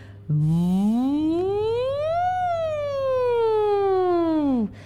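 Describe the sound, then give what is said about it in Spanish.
A single buzzy, nasal vocal glide in a voice exercise, made with puffed-out cheeks and a little air escaping through nearly closed lips, like a whining mosquito, sweeps slowly upward in the high register, then sinks back down in one unbroken breath, fairly loud, with no talking. “Va a salir solamente un poquitito de aire entre los labios, sí, pero los cachetes van a quedar inflados. Cara de pez globo, sonido de mosquito en los agudos.”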